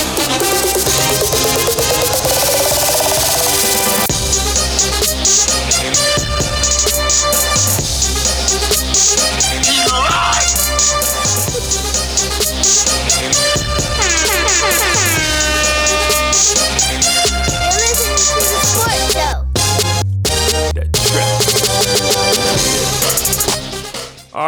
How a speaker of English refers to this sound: Yeah, y'all ain't heard that theme in a long time. Yeah, man, man it felt real good to hear that theme